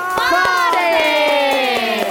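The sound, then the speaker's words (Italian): A crowd cheers with a long, sustained shout that slowly falls in pitch, while hands clap in a steady, even rhythm of about four claps per second underneath. The applause is for the radio participants at a summer camp, during a live broadcast on Radio 6. “per me è un grandissimo onore, soprattutto applausone!”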